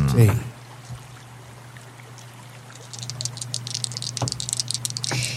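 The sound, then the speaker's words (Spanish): Dice rattle and clatter in a dense burst of quick, light clicks during the last couple of seconds, rolled for a perception check, following a quieter stretch with a steady low hum underneath. “Me encantan estos dados.”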